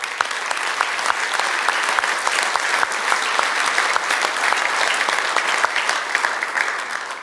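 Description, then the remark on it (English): A church audience breaks into steady applause, dense overlapping claps sustained at an even loudness for several seconds with no voices standing out. “Go ahead, go ahead, let's clap.”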